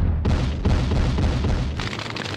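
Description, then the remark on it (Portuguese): A massive MOAB bomb explosion sound effect: a loud, deep rumbling roar with a few successive crackling blasts layered in, sustained for a couple of seconds with no voices. “Solta Moab! Moab, fogo no futuro, Moab!”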